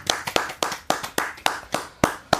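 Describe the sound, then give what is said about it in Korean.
One person standing up and clapping hands during a visible radio show broadcast, at a steady, slightly uneven pace, about nine sharp claps over a couple of seconds, crisp and bright with no voices. “일어나서 박수 쳤습니다.”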